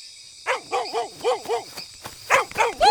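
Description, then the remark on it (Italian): The puppy Mia, who has brought back the ball, barks in a quick run of short, high-pitched yaps, pauses briefly, then lets out a few more. The barks are fairly loud, with no one talking. “Ce l'hai riportata! Brava, cucciola!”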